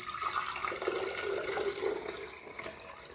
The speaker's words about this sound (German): So, jetzt wird der abgesiebt in ein neues Glas.